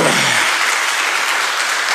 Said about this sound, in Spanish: Aleluya, dale un aplauso al Señor.